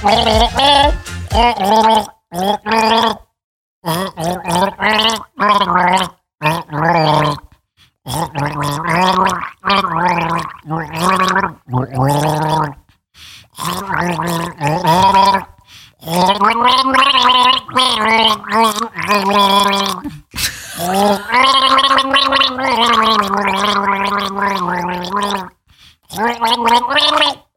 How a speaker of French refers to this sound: je vais donc chanter dans mon tuba.